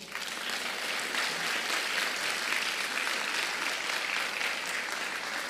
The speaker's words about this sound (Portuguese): Ao Senhor honra, glória e louvor para sempre. Para sempre. Você pode aplaudi-lo?